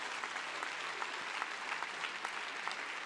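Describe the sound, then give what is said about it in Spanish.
An audience at a church service applauds God, called the King, steadily for about three seconds, a dense, continuous patter of many hands clapping with no voices rising above it. “Dale un aplauso bien fuerte al Rey, por favor.”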